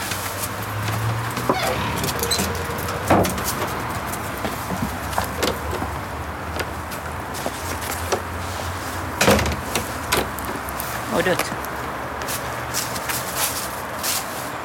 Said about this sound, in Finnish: Me lähdetään tällä oven avauksella renki.